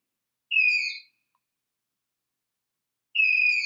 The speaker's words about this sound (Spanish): Parece un ave, ¿cierto? Pero resulta que pasa que es la danta brasileña.